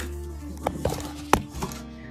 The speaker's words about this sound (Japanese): 段ボール畳みましょう。